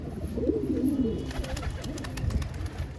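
Pigeons in open wooden lofts coo continuously in low, throaty warbles, several birds overlapping, some taking off and landing on a brightly painted tower, with faint clicks and flutters in the background and no voices.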